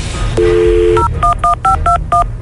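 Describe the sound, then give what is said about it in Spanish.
A phone number is dialed to call the tire company Victorias Wheels: a short steady dial tone, then six quick touch-tone beeps in a brisk, slightly uneven rhythm over a low background hum. “ok, permíteme, entonces vamos a marcarle.”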